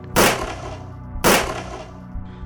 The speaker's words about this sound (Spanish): Acto seguido, apuntó su arma con dirección a la mujer y a sangre fría le propinó dos disparos que impactaron en su abdomen.